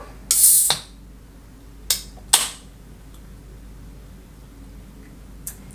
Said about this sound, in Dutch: Nou, het inschenken maak ik eerst even het blikje open.